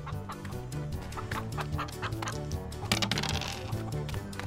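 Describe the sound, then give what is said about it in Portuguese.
A chicken clucks in quick, repeated bursts throughout, fairly loud, over a steady backdrop of low tones like background music. “Você pegou a galinha.”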